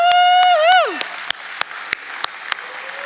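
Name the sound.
audience applause and cheering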